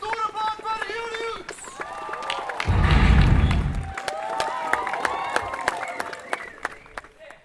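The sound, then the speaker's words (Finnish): Children shouting and calling out as they run around in circles on a lawn playing tag, high excited voices, with a burst of rushing, thudding footsteps in the middle. “Taustalla kuuluu, kun lapset leikkii meinasin sanoa, että juhannus salossa, mutta kyllä ne juoksee ihan vain ympyrää nurmikolla.”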